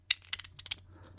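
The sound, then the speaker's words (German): A Lyra pencil slips out of its sleeve holder, to which it is attached by only about a quarter of its length, and clatters down, a quick burst of several hard clicks and taps that trail off into a faint final tick. “in die Hülle reinstecken, fällt er immer raus.”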